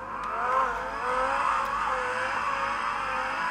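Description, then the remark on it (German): A car engine revs steadily as the driver steps on the gas and accelerates, a continuous loud droning whine with harmonic tones that rise and shift in pitch, with no voices over it. “Jetzt gebe ich Gas.”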